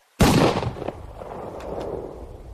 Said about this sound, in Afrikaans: Die jagter skiet nog 'n paar skote, maar alles is gelukkig mis.